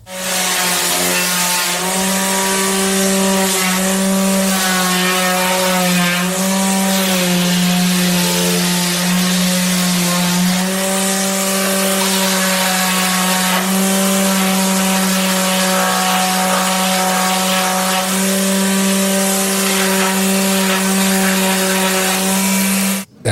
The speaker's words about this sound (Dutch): mensen moeten nu niet denken dat Pim Dijkgraaf opeens eh, onze studio aan het schuren is met een grote schuurmachine.